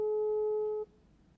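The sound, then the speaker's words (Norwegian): A single steady electronic telephone ringing tone, heard while placing a call, sounds clearly for under a second, then cuts off abruptly, leaving a faint quiet line afterward. No one speaks. “Så jeg tenker at vi bare ringer”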